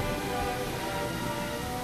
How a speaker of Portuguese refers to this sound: Jéssica sente os primeiros pingos de água caindo sobre seu corpo